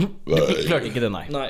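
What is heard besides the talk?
burp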